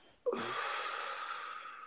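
A single deep breath drawn in sharply, then a long, steady breathy rush of air that holds for over a second and a half before easing slightly. No talking.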